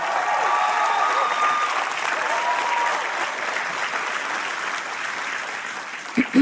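Sustained audience applause, a dense steady wash of clapping that holds loud for several seconds and tapers slightly before a brief burst of voice at the very end.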